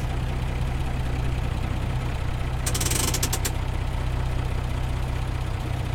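A Star truck engine idles with a steady, deep rumble throughout, broken midway by a brief burst of sharp, pulsing hiss.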